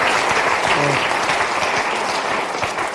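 A crowd applauds steadily, dense overlapping claps forming a loud, even wash of noise that holds for the whole stretch, with a brief tonal murmur early on and no clear speech.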